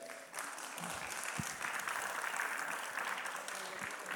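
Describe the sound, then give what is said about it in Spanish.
An audience claps steadily for a few seconds, a dense patter of many hands at moderate volume with no voices standing out, the applause fairly even throughout and a bit sparse in enthusiasm. “Aplauden poco porque tienen hambre, ya por la hora.”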